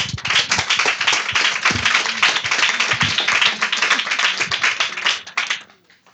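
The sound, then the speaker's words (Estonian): A crowd breaks into dense, steady applause, many hands clapping at once for several seconds before the sound tapers off and fades out near the end. “aitäh, suur aplaus.”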